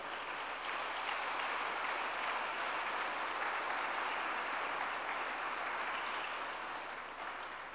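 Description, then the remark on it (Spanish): An audience breaks into steady, dense applause for God, many hands clapping together in a continuous wash of sound that holds strong for several seconds before easing slightly at the end. “¿Lo puedes creer? Dar un aplauso a Dios.”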